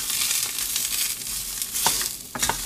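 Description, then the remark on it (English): Loud, steady sizzling of sausage frying in a hot pan, a dense crackling hiss with a couple of sharper pops and scrapes near the end, with no talking. “Let the, you know, skin eat away at the heat that's really loud, I feel.”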